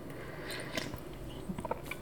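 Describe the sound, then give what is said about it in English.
A quiet sip of coffee from a cup, with a few soft wet mouth clicks and a small swallow against low background hiss; no one speaks. “Now, let me tell you another reason why I like this as I take a sip of my coffee”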